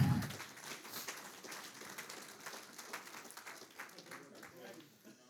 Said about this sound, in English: All right, give these guys a big hand clap.